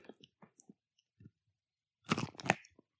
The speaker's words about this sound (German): Jetzt. Ich hätte gern das. Nee, warte, warte. Ich ja. möchte das Knacken des Schokofreshes in deinem Mund bitte dokumentiert.